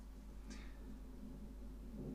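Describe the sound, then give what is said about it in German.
A faint roll of thunder rumbles low and steady throughout, with a brief crackling hiss near the start and no voices. “Das ist Donner.”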